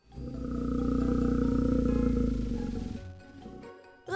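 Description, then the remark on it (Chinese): A black bear roaming in a forest gives a deep, sustained growl that swells for about three seconds with a rough, rumbling low pitch, then fades into quieter rustling noise before a short burst at the end. “原来是一头黑熊在森林里游荡。”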